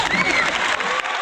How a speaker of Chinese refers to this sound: 来，掌声欢迎。